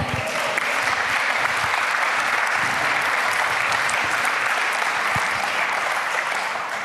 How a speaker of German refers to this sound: Also, wenn ihr dieses Amen mit eurem Klatschen auch ausgedrückt habt, dann habt ihr gesagt, so soll es sein. Das heißt Amen.